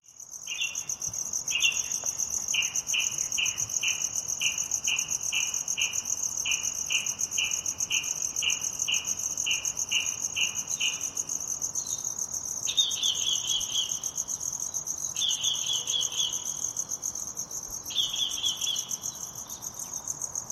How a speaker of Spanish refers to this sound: voy a poner grillos durante 20 segundos, 20 segundos para que elabores mentalmente en tu coche, en casa, en la cocina, donde estés, una respuesta a la siguiente pregunta.